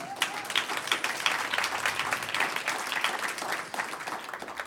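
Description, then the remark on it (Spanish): A church audience breaks into sustained applause for the Lord, dense overlapping claps forming a steady, bright wash of sound for several seconds without a clear pause. “Un aplauso al Señor.”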